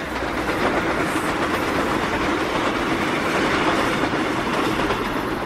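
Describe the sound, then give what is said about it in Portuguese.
A train rolls past, a loud, steady rumble of wheels on rails with a rapid clattering rhythm and hissing noise that stays at full strength throughout, with no voices. “Olhei o trem passar violentamente diante de meus olhos.”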